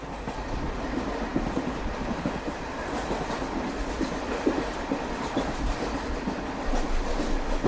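A moving train on the Kerman to Tehran route, running at 12:30 noon, rumbles steadily along the rails, its wheels clacking in a continuous rhythm, with a dense low roar and no voices present.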